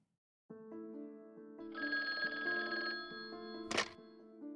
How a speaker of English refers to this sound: picked up the ringing phone and heard his daughter